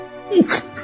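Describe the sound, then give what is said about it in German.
A single sharp sneeze, fairly loud: a brief voiced intake rising into an explosive, hissy burst that fades quickly. “Entschuldigung. Gesundheit.”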